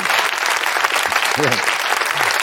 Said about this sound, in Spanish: No entiendo el aplauso. A veces no lo entiendo. O sea, ¿qué aplaudís? los, huevos del tío, ¿no? O, digo, hostia, a lo mejor son un público súper motivado.